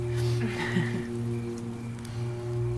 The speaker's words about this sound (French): Je me sens un peu submergée par toute cette pluie. Je sais pas pourquoi.